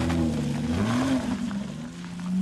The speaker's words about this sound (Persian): زن ماشینش رو روشن کرد و از برایان تشکر کرد و رفت. برایان اونقدر ایستاد تا ماشین پیرزن از نظرش محو شد